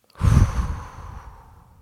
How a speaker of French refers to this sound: Alors un petit truc, quand on a la voix qui tremble juste avant de rentrer là dans ce fameux grand méchant oral, on inspire. On bloque la respiration sur quelques secondes et on expire.